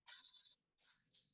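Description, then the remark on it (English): A nine-line Canute refreshable braille display clears its pins with a bright, hissing mechanical whir: one long sweep, a short pause, then a second burst with a sharp click-like onset, fairly quiet. “What you're hearing is the sound of this nine line canute”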